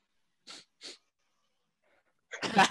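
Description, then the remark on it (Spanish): A voice imitates people sobbing after a match ended: two quick, breathy sniffling gasps, a short silence, then a louder, strained wailing cry. “Y después estás llorando.”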